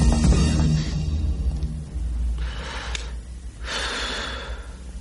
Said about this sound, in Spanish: Andy empieza a llorar. Marta ha muerto.